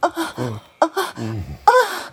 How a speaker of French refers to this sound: Dans le sexe, et plus particulièrement au moment de l'orgasme, on laisse le son brut prendre le dessus sur la parole. On ne produit pas de discours, mais des signaux vocaux plus ou moins intenses, des souffles, des gémissements,